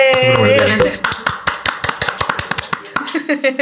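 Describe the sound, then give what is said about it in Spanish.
A brief burst of applause: a steady run of sharp, crisp claps, roughly a dozen or more in quick rhythm, follows a short voiced sound at the start and ends with a few looser claps. “este es el, este es el aplauso oficial.”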